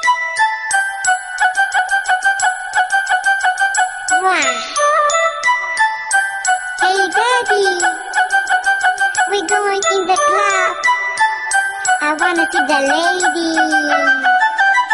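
A loud, bright electronic mobile phone ringtone melody, number one in a ringtone chart, plays continuously, with busy synth notes over steady chords and occasional sliding, voice-like tones, and no one talking.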